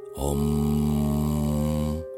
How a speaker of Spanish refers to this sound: permaneció el bostezo solitario y levitante, a modo de ente autónomo, acompañado por un sonido